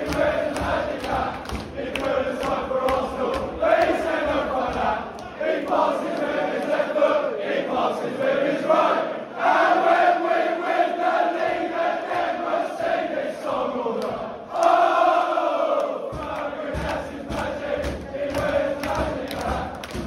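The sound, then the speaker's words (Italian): A large crowd of Chelsea football fans chants and cheers in unison, a loud, steady roar of many voices with tuneful sung swells rising and falling throughout, with no clear speech. “tifosi del Chelsea entusiasti è come dare loro torto.”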